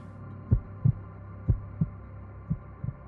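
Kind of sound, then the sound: sound effect, heartbeat sound effect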